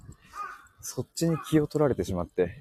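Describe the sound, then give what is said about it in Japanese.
A crow caws a few times outdoors, its harsh calls coming first and then continuing faintly beneath a man speaking. “ちょっとちょ、僕ほんとダメなんですよね、あの、そのなんか5時の鐘とか、外の、あ、あ、またカラス鳴いてる。”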